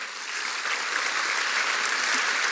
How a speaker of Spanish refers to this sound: ¿Cuántos de aquí tienen en su casa sedes de grupos pequeños? Levanten la mano. Allá, allá, allá. Estos merecen un aplauso. A ver si se los damos, por favor.